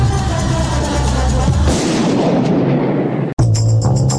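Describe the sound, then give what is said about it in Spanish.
Loud rifle gunshots boom, leaving a heavy rumbling echo that fades before the sound cuts off abruptly and something new begins. “Escuchar los disparos y me gusta raro.”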